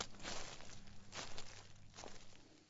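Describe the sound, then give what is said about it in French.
Slow, heavy footsteps of a pregnant woman expecting twins trudging with difficulty through dry dead leaves in autumn, in front of the glass door of the maternity hospital in Rennes, about three distinct steps, with a low steady hum underneath and no talking. “Pauline, la future maman de jumeaux, arrive péniblement en piétinant dans les feuilles mortes”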